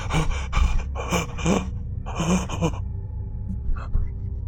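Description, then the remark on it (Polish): Ragged, panicked breathing of a terribly frightened person: a rapid series of sharp, uneven gasps and shuddering breaths, several in quick succession, then a quieter stretch with a couple of fainter breaths. “I zaczynasz słyszeć oddech ten oddech jest e, urywany um, takiego kogoś straszliwie przestraszonego.”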